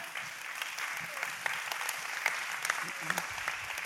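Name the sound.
audience clapping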